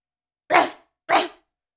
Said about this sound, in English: barked the dog. Wanna chase a cat?